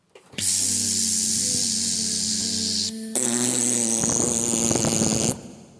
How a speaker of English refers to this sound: And when the moon is full and the stars are twinkling in the sky on a Halloween night, you'll hear the fairies singing and when it gets quiet, you just might hear a fly fart. Can you remember what that sounds like?